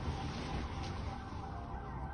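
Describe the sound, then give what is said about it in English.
A car on the road, its steady engine and tire rumble filling the brief moment at an even, fairly loud level, with no one talking. “Jesus, what's going on with that car, man?”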